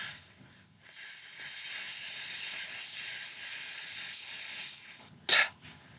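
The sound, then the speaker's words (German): A long, steady hissing exhale through the teeth lasting about four seconds, done as a breathing exercise guiding the breath along an imagined thread, even in loudness, then cut off by a brief pause and a short, sharp "t"-like burst of air. “ich dann das Gefühl habe, ah, okay, dann kann ich irgendwie die Atmung besser führen auf einem Faden, den stelle ich mir vor, vielleicht von hier jetzt zum Mikrofon oder zur, zur Wand, zum Fenster, zu einem bestimmten Punkt.”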